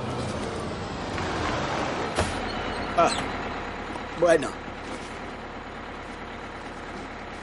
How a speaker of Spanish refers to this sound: Llega el autobús.